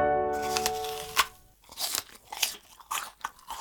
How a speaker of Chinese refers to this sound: 哦，原来这就是咬苹果的声音啊，很清脆哈。